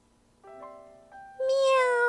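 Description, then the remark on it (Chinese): A cat named Pipi, in a cage at midnight, meows several times in quick succession, the calls rising in pitch and growing louder, ending with a long, loud, insistent meow. “于是，他开始喊了起来：”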